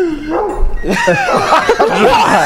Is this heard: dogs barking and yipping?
yes